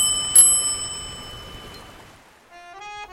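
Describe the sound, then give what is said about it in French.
A bicycle bell gives one sharp, bright metallic ring that hangs and slowly fades for a couple of seconds, then a brief run of light tonal notes begins. “Dring Dring, le podcast de Dardar qui vous fait découvrir la Flandre à vélo.”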